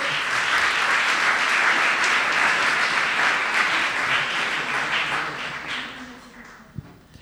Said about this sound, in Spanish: Venga, va, un aplauso, por favor.